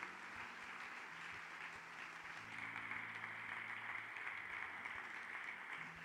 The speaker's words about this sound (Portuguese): Pode aplaudir bem forte a Deus.